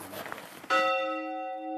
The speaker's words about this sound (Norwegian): Går det an å høre kirkeklokka? Det kan vi prøve.